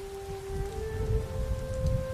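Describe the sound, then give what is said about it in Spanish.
Steady rain falling with a dense, rumbling wash of noise, joined by a sustained tonal hum droning underneath throughout. No voices. “Volvamos a oír la lluvia.”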